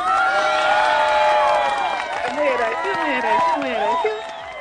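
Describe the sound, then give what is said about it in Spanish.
A crowd breaks into loud applause and cheering for Comic Fest, with many voices whooping and shouting in rising and falling pitches over steady clapping, sustained for several seconds before tapering off at the end. “Así que un aplauso por tío Comic Fest.”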